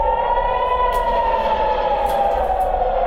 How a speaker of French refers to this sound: Une attaque au petit matin qui va surprendre tout un pays, avec des impacts recensés jusqu'à 80 km au nord, à Tel Aviv. Les sirènes se déclenchent.